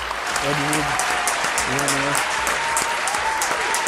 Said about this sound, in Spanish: Entonces, vamos a mandarle un aplauso a donde quiera que esté al maestro